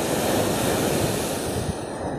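Ocean waves break and wash steadily onto the shore in a continuous, full-bodied roar, fairly loud, with a breezy rush over the top and no voices, recorded while standing in the ocean.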